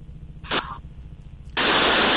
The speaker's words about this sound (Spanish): Nos escuchas, ¿no? Es que ha habido una interferencia.